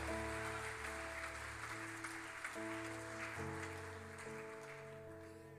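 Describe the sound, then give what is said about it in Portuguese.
A church audience claps to praise the name of the Lord in steady, dense applause that fades slightly toward the end, accompanied by sustained keyboard chords that shift a few times underneath. “Quem recebe esta palavra, aplauda o nome do Senhor.”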